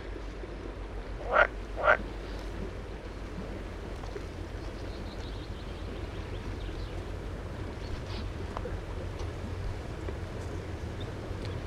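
Two short, bright pool frog calls ring out close together near the start at a pond on Örskär, Sweden, then only a low, steady outdoor rumble continues, like wind or water, with no voices.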